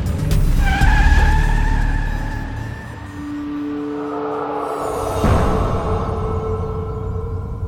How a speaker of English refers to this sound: A yellow cab screeched to a halt, almost running over Tully's foot.